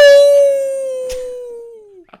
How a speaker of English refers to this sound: Off stage, wolf call.